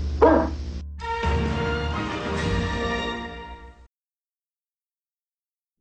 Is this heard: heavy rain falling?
no